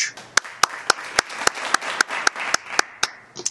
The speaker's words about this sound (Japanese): 皆さん拍手